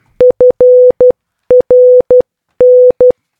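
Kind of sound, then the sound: signal or alarm, morse code beeps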